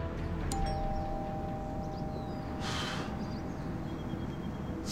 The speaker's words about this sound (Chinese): 另一边的 T Bag 终于再次找到了苏珊，心情复杂的按响了门铃。